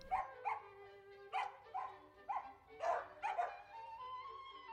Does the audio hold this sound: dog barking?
yes